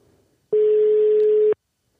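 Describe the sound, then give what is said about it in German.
A single steady telephone ringback tone sounds for about one second, loud and clear, while calling someone at home in Cologne, with faint background murmur before it and silence after. “Mal sehen, ob er da ist.”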